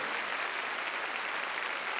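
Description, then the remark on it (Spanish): An audience claps steadily for the Lord, a dense wash of many hands applauding at once with no pauses, filling the whole clip at an even, moderate loudness. “Ah, palmas fuertes a nuestro Señor.”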